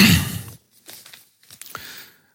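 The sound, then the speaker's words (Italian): Pages of the newspaper Libero rustle and crinkle as someone searches for an article: a loud crackling burst at first, then a few shorter, softer papery shuffles with brief pauses between. No one speaks. “Eh, c'era una cosa che volevo prendere da libero. Aspettate che lo recupero.”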